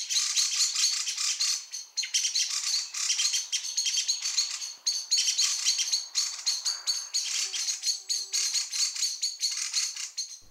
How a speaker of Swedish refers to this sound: om man hör upprörda trastar och mesar, så kan man titta efter det och så är det ganska vanligt att man kan upptäcka en kattuggla som sitter då på sin dagkvist.